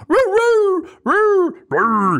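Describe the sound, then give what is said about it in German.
A human voice mimics a dog with three drawn-out, whiny yowls in a row, loud, the first longest, with short gaps between them and no other sound. “dass ihr verschiedene Hundelaute noch habt.”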